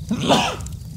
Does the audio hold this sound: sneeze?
yes